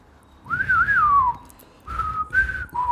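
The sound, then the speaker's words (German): Someone whistles a western film theme melody: a long, gliding, wavering phrase, a brief pause, then a few shorter held notes, clear and fairly loud with no talking. “Ich denke gerade an ähm, eine Handvoll Dollar oder eine Handvoll Dollar mehr mit Clint Eastwood, wo dieses Pfeifen kommt.”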